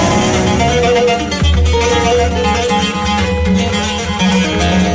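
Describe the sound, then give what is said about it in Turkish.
A Turkish folk song (türkü), prepared exclusively for Kral FM listeners, plays steadily at full volume, with layered sustained melodic tones over a firm low bass line and no talking over it. “Şu an dinlediğiniz türkü sevgili kralcılar sevgili kardeşim”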